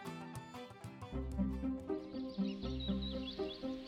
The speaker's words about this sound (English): St. Patrick woke up to the sounds of the birds chirping in the trees outside his master's house. The sun hadn't even risen yet.